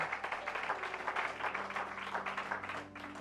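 A church audience claps together for the Lord in a dense, steady patter of many hands, sustained throughout with a low hum underneath and no talking.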